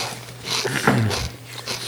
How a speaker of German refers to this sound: deswegen ähm, muss ich jetzt erstmal gerade hier von meinem saftigen Mikrowellenburger abbeißen. Jam, jam, jam. Geil, ey. Das schmeckt echt richtig gut.